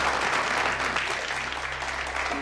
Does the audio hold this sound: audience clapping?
yes